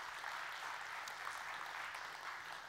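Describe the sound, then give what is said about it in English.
An audience claps together to give the Lord a hand clap, a dense, steady wash of many hands, the applause sustained at an even level for the whole stretch without any voices. “So let's give the Lord a good hand clap today.”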